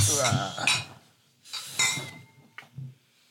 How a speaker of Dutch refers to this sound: nou, dan proosten toch? Ja, dan proosten. Ja. Proost. Cheers! Cheers!